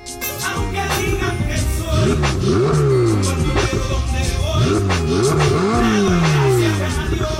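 A Maserati sports car engine revs hard, its pitch climbing and dropping in repeated surges over a steady loud idle growl, with no voices.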